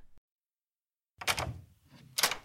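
A door is opened for someone returning from a class trip after about a second of silence: a sharp latch click, a short low rumble of movement, then a second bright click. No one speaks.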